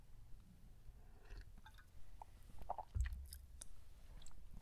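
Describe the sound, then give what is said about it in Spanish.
Quiet mouth sounds of someone sipping coffee: soft slurps and wet swallowing noises, a faint gulp near the middle, with no talking. “Y pausa para trago de café.”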